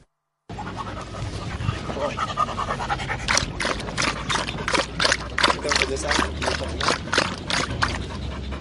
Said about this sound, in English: What you're hearing is the sound of a snipper dog drinking water after a busy training session here inside UNMISS camp at Tomping. We're just a few meters away from an IDP camp which is home to more than 20,000 people